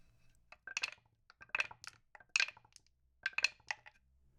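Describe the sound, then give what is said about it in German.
Dice clatter down through a solid-wood dice tower in several bright, rattling bursts, clicking and tumbling before settling, with no one speaking. “Puh, puh, werden die Würfel gewürfelt. sich in einem Würfelturm von Ratskellos aus Echtholz.”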